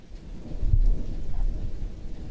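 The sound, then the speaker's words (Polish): Steady rain falls while a deep, rolling rumble of thunder swells and lingers underneath, filling the scene with a broad low roar and no voices. “nadal pada, więc nie mam parasola.”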